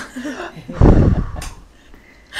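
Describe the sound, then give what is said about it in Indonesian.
A single deep, breathy rush of air taken in, loud and lasting about half a second, with faint voice murmurs around it. “Tarik nafas dulu pak.”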